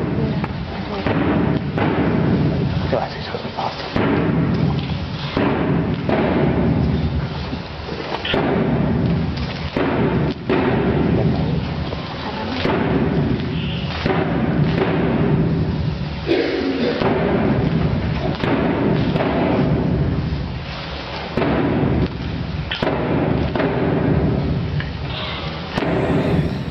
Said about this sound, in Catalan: És el timbal que acompanya la dansa de la mort de Verges, la que passa pel carrer dels Cargols, cada dijous sant a la nit.